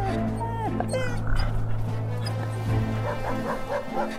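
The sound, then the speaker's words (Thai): Two dogs bark and whimper in short, high yelps and whines as they flee a farm, clustered near the start and returning later, over a steady low droning background. “สุนัขทั้งสองตัวจึงได้ตัดสินใจหนีออกจากไร่ไป ยอมเผชิญกับพายุหิมะอันหนาวเหน็บ”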